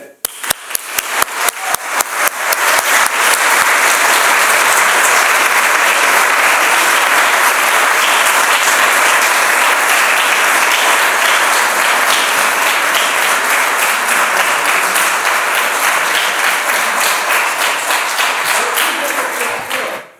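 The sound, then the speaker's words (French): A large audience at a session of the Collège des traducteurs de Senef claps loudly and steadily, building from a few scattered claps into dense, sustained applause that fills the whole stretch before cutting off sharply at the end. “Euh, je voudrais qu'on l'applaudisse très fortement avant, avant qu'elle ne nous fasse le bilan de cette session de cette année.”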